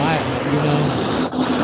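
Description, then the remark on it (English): A loud, steady roar of aircraft engine noise from the airport at Van Nuys, LA, fills the background from start to finish, with a man speaking briefly over it. “The airport, Van Nuys.”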